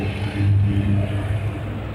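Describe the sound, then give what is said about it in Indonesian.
A motorcycle engine idles and rumbles, a deep steady drone with a slight swell in revs, as the rider stops at a red traffic light near Tempel, Indonesia, set against the hum of surrounding street traffic. “ya siapa lagi sih podcaster yang uh, sambil live report dia bikin podcast dan dia naik motor pula”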